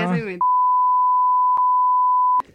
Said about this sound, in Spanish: Esto va a estar vipeado.